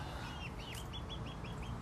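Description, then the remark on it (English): Chickens cluck around in the heat in a steady series of short, bright calls over a continuous low rumble of background noise, moderately loud, with no talking. “They're at the chickens right here. They're they're clucking around in the heat and uh, doing their thing.”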